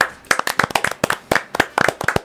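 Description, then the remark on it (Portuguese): A small group applauding in tribute to the late footballer Fernandão (Fernando Lúcio da Costa) on what would have been his 42nd birthday, a steady patter of overlapping hand claps, fairly loud, sustained for a couple of seconds with no voices. “Então, meus Vamos acréscimos. aplaudir.”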